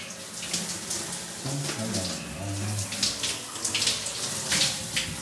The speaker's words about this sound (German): Ja, im Hintergrund hört ihr wieder die Dusche. Die Dusche.